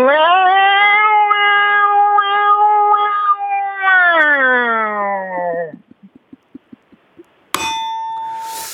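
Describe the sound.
A person imitates a cicada with a loud, sustained, buzzing vocal whine for several seconds. It drops in pitch and breaks into a string of quick stuttering pulses, then ends in a harsh rasp.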